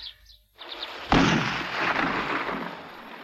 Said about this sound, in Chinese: 听到枪声了吗？